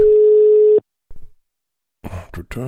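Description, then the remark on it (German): A single steady, mid-pitched telephone ringing tone on an outgoing call to a man's phone number sounds for under a second, then cuts to silence before a voice starts talking. “Das klingelt.”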